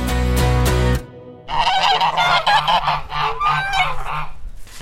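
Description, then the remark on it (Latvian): A flock of farmyard geese, hatched in a homemade incubator, honks loudly and repeatedly, the overlapping nasal calls forming a busy, continuous chorus after a brief opening of a different tonal sound. “Tas zosis ir tās, kas visu sagaida”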